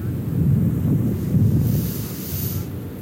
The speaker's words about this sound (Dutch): Ja, dat voelde ik allemaal toen ik hier zo aankwam op het strand. En, ja, en zelf ook heel erg de behoefte heb om mee te ademen met die golven. Het principe is eigenlijk heel erg simpel. Je ademt in als de golf naar je toe komt.